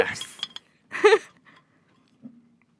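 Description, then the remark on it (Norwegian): A soda bottle is opened right next to a microphone: a brief fizzy hiss, then a louder clinking burst of glass, and a faint click a moment later in otherwise quiet surroundings. “skal du åpne den inntil mikrofonen.”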